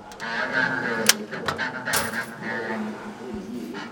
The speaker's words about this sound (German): ein Motorradtaxifahrer, steht vor einem Kasten, der mit seinen blinkenden Zahlen an einen Spielautomaten erinnert. Während er Geld in den Automaten wirft